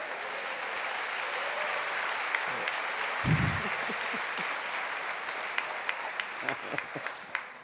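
An audience applauds steadily, a dense wash of many hands clapping that holds at an even level throughout, with a brief low thump partway through and a few sharper individual claps toward the end.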